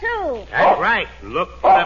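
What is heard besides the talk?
dog barking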